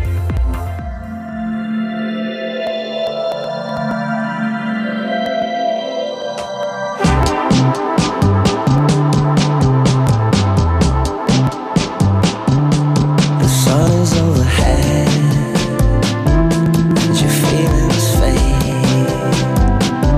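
A song plays loudly, opening with a hazy, droning intro before a full band with drums and bass kicks in around seven seconds, steady and upbeat.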